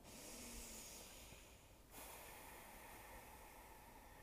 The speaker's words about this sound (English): Deep breathing.